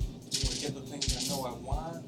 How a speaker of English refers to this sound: Okay. Okay. Roll some percentage dice